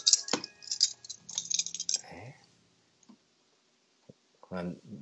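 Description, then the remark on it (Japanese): A bunch of keys with a metal Newcastle Brown Ale bottle-opener keychain jangles and clinks for about two seconds, then falls quiet before a person briefly speaks near the end. “この僕の鍵にいつもほら僕線抜き持って歩いてるって言ったでしょ、はいはい、これこれこれこれニューキャッスルブラウンウェルの線抜きだ”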